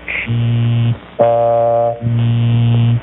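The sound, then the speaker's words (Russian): A buzzy, robotic synthesized voice from the Voder speech synthesizer says three flat-pitched syllables, "She saw me", starting with a short hiss, in a loud, steady electronic drone with brief gaps between them. “Сначала устройство сгенерирует слова, а из этих слов мы можем собрать предложение.”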